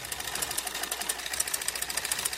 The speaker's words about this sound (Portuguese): Noite. Foco em carretel de linha numa máquina de costura.